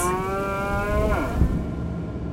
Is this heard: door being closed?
no